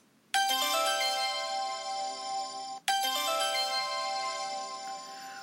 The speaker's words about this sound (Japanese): おや、このチャイムが鳴るということはですね、えー今回はですね、ちょっと大事なお知らせがございます。